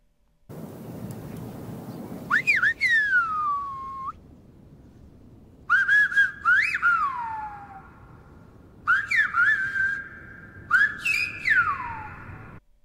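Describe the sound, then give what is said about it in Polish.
Whistled language: four phrases of loud human whistling, with pitches gliding up and down between higher and lower tones, some held steady and some broken into short chirps, separated by brief pauses; the language has two vowels and four consonants, told apart by high or low pitch and broken or continuous sound. “który składa się z dwóch samogłosek i czterech spółgłosek, i są one rozróżniane na podstawie tego, czy ktoś gwizdże dźwiękami wysokimi czy, czy niskimi, czy jest to dźwięk przerywany albo ciągły.”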